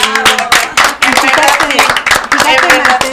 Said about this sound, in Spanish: Así que vamos a darle un aplauso, ¿no? Sí.